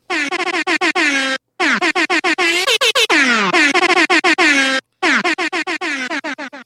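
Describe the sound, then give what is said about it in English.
A loud, rapid barrage of blasts from a super air horn, stuttering in quick bursts with brief pauses, blaring alone with no talking. “my parents like should we give him the super air horn?”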